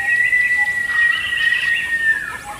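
Several birds chirp and call together in a busy forest chorus, bright overlapping tweets over a steady high whistling tone, continuous throughout.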